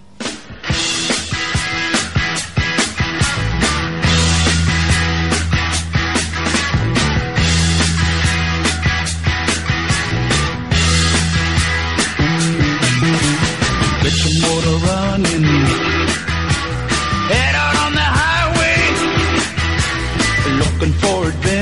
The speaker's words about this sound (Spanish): Y ahora seguimos aquí en Auto FM, bueno, con el mejor sonido, con, ya sabes, un minuto de música y continuamos.